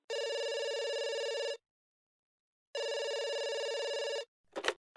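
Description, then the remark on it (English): A telephone rings twice in long, steady electronic bursts separated by a pause while a call is being transferred, then a short click or clunk as if the line is picked up. No one speaks. “Your call is being transferred.”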